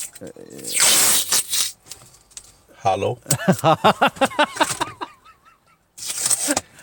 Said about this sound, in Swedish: Okej, okay, nu, nu, nu, nu, får ni inte tro att jag håller på att tejpa, liksom, tejpar upp något offer. Här nej, nej, nej. Det låter lite så,